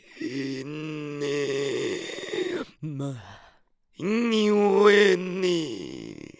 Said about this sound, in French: Alors, c'est des voix beaucoup plus étranges, mais euh, qui vont travailler le souffle à l'envers. C'est-à-dire qu'on va plus faire une voix qui sort, mais on va faire une voix qui rentre. Donc, ça va inverser le souffle